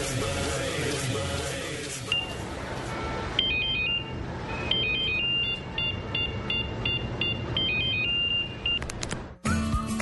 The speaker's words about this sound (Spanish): Si pensaste que sonaba tu celular, es momento de cambiarte a un smartphone.